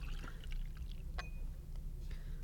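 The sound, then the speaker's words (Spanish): Water is poured into a one-cubic-decimetre container, which holds one litre, for a couple of seconds, with splashy bursts and a brief rising ring as it fills, over a steady low background hum. No one speaks. “A mi decímetro cúbico le cupo un litro de agua y pesó un kilo.”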